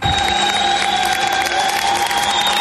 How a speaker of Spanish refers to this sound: De esta manera recibían en las estaciones de trenes de Alemania con aplausos emocionados a los cientos de miles de refugiados que entonces llegaban allí huyendo de la guerra.